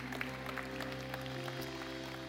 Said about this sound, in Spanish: Si usted lo cree, levántelo un fuerte aplauso al Señor. Si usted cree que Dios cumple sus promesas.